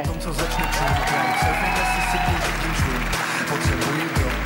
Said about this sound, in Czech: My samozřejmě pokračujeme v potlesku ještě.